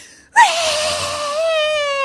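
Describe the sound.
A voice imitates a mother's shriek: one loud, sustained high-pitched wail that starts abruptly after a brief silence, dips slightly in pitch, then holds steady with a slight waver for nearly two seconds.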